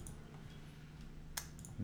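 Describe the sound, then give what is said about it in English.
Faint computer clicks and key taps, a few sharp ticks spaced irregularly over a low steady hum, quiet, with no one speaking. “Just clicking through clicking through.”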